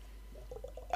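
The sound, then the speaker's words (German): A few quick wet, gurgling slurps of a sip of alcohol in a soft, bubbly rhythm, ending in a brief, louder splashy burst as the liquid is spat out. “Und darauf trinke ich jetzt einen Schluck Alkohol.”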